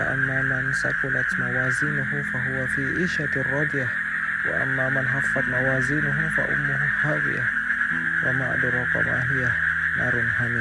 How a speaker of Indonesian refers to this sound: itu suara kodok samping rumah samping rumah tuh ada tanah kosong terus agak rendah terus kalau habis hujan airnya suka tergenang gitu jadinya kodok suka main di situ enak banget malam-malam gini dengar suara kodok